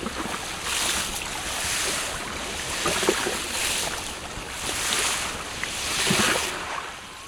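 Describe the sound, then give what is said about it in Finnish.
Sea ice slush tinkles and hisses as small waves wash through it on the Gulf of Finland shore in Helsinki, Finland, rising in bright crackling surges every second or so, with a steady watery rush underneath and no voices. “Meri helisee Helsingissä Suomenlahden rannassa.”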